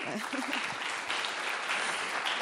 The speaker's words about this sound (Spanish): Un fuerte aplauso en conjunto.